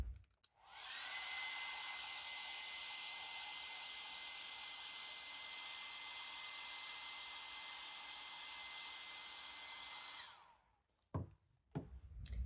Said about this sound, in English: Or if you need to speed that up a little bit, you can also wipe off your hands. And then we take a dryer